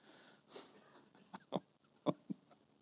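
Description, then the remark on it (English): A voice imitates a dying wheeze: a breathy hiss followed by a few short, strained, croaking gasps, quiet, with no talking. “Oh, what's a good dying sound?”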